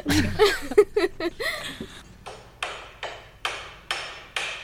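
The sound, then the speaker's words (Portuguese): A brief burst of laughter gives way to a hammer pounding steadily, about six sharp, ringing strikes at an even pace, clear. “É um martelo. Agora Martelando.”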